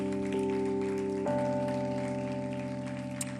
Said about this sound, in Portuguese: Aplauda Ele mais forte. Aplauda mais, aplauda mais, não para não.